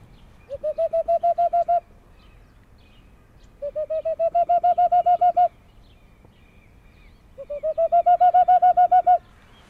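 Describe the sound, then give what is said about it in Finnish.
Three bursts of rapid, hollow hooting notes, each a quick run of about a dozen pulses rising slightly in volume, whistled into cupped hands to imitate a boreal owl's call, clear with pauses between. “Samalla t- tavalla voi matkia helmipöllöä.”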